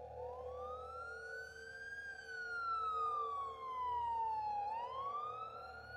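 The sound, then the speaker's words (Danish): Ambulance sirens wail as ambulances arrive at a house in Kalbakken, Norway, on a Sunday evening, rising and falling in long sweeping tones, fairly loud and steady over a low rumble of background noise, with no voices present. “Ambulancerne begyndte at ankomme.”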